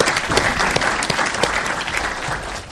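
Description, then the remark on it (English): An audience applauds steadily at the close of a presentation in a Future Tech session at the Legal Tech West Coast conference in Los Angeles. It is a dense, even wash of many hands clapping at a fairly loud level that holds throughout and fades slightly toward the end, with no talking. “we'll give him a big round of applause.”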